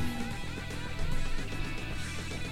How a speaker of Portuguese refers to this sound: esse som que vocês estão ouvindo é o vento da janela, tá? Porque tá chegando o inverno. E esse harmônico que vocês estão ouvindo é um Fá sustenido, se eu não me engano. que é o som da minha janela quando venta de madrugada.